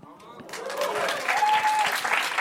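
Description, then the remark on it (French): An audience claps in a dense, steady burst that swells after a quiet start and holds loudly for a couple of seconds, with a faint whistle and some voices mixed in. “C'est exactement pour ça que, que, je vous le disais, parce que j'avais envie d'être applaudi là-dessus.”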